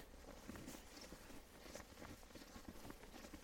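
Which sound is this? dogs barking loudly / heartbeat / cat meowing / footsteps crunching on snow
footsteps crunching on snow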